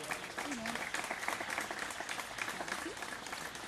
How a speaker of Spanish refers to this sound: Un aplauso, por favor.